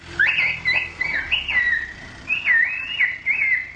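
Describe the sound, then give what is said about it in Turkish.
Gendarmerie in Giresun, Turkey, whistle a warning about the virus in the UNESCO-listed whistled bird language: a long, melodic phrase of rising and falling tones in quick, speech-like bursts, loud, with no talking alongside. “Anonslarını UNESCO'nun kültürel miras listesinde yer alan kuş diliyle yaptı.”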